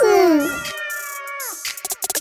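A cat meows loudly in a long, drawn-out call that falls in pitch, followed by a few short, soft rustling or tapping sounds.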